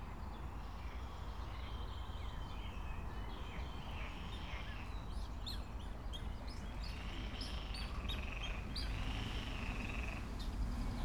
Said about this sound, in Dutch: En als je goed luistert, dan hoor je de jonge meerkoetjes.